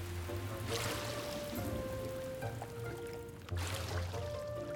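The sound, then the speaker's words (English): Steady, heavy thunderstorm rain pours down in a dense, continuous hiss with no voices, while a low mechanical hum drones faintly underneath throughout. “I can't believe Mighty Mila is still being a thunderstorm.”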